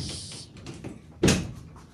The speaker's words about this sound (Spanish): Al parecer ahí viene porque se bien pasos. Se está acercando, ya abrió la puerta y ya va a cerrar.